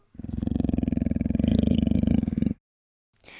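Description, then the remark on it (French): A deep, rumbling animal growl rolls on for a little over two seconds, loud with a pulsing rasp, a little way off in a dark place with water dripping from the ceiling, then stops abruptly; a brief breathy snort follows after a pause. “On entend alors une sorte de grognement un peu plus loin.”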